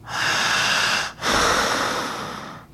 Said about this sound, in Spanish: Oiga, siga respirando.